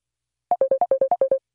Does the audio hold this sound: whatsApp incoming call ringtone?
yes